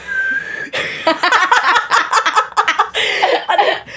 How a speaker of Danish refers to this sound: Jeg, jeg, jo, jeg kan fløjte, jeg kan fløjte en af, når jeg suger en af.